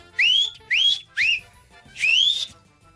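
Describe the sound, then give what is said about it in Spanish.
Four loud, shrill whistles by a woman in the street hailing a taxi, each sliding upward in pitch: three short blasts in quick succession, then a longer drawn-out one after a brief pause, with no talking. “ya ves que las mujeres chiflan así bien chido.”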